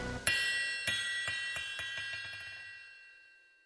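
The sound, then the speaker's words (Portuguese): A small greenish ball with small iron pieces inside rattles and jingles as it bounces and rolls across a floor, a series of bright metallic clinks with a lingering ring that gradually fades out. “a qual voou alguns metros e rolou sobre meu assoalho com o som irritante de pequenos ferros sacudindo por dentro.”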